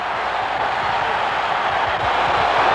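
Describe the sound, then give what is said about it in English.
A huge stadium crowd at Three Rivers roars and cheers after a game-winning Pittsburgh touchdown, Bradshaw's pass to Cunningham. The cheering is a dense, loud, unbroken wall of noise that holds steady and swells slightly toward the end, with no clear voice above it. “Listen to this crowd go crazy.”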